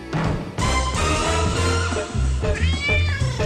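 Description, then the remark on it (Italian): A cat meows loudly and repeatedly, with drawn-out, wavering cries following one another in quick succession and no talking. “Attenzione al gatto.”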